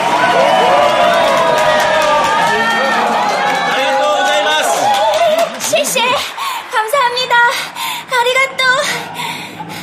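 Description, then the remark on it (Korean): A loud, dense crowd of spectators cheers with many overlapping raised voices and scattered clapping as performers swing across to another high trapeze to do new tricks. The roar holds steady, then breaks into choppier bursts of individual shouts toward the end. “그러나 실수 없이 날렵하게 다른 쪽 그네로 옮겨 매달려서 새로운 재주를 피울 때 구경꾼들은 기뻐 날뛰면서 함성과 손뼉 소리를 퍼부었습니다.”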